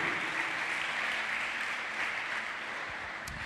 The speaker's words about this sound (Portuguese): Se você crê e concorda, aplaude esse Deus maravilhoso. Aleluia.